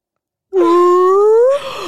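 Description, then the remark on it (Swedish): A person's voice imitates a whale call: one long, rising, tonal moan held for about a second, loud, then breaking into a rougher, breathier tail. “Nej, vad är ett bra valdjur?”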